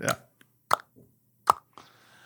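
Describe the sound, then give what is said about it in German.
Plastic domino stones for the returning Domino Day click together in a few sharp, hollow taps, about four distinct hits with a couple of fainter ones between, irregularly spaced, with no talking. “Die Steine sind ja aus Plastik was, das klickt nicht richtig, hören Sie das mal, ich habe das mal hier isoliert für alle.”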